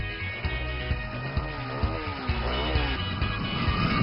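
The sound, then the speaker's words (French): A car engine is warmed up and runs steadily with a low rumble, revving up and down in rising and falling sweeps as the vehicle pulls away to head back on the road. No one speaks. “Eh bien, il est temps de chauffer le moteur et de reprendre la route.”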